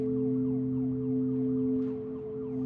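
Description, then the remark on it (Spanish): Hospital machines emit a steady, unbroken electronic tone that drones on for the whole moment, fairly loud, with faint shifting noises in the background and no one talking. “Y ni hablar de ese pitido constante.”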